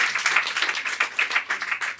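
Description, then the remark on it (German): About half of an audience claps in answer to a show-of-hands question, a dense patter of many hands at a steady moderate loudness that wavers slightly but never stops across the two seconds, with no voices over it. “Ungefähr die Hälfte hat geklatscht.”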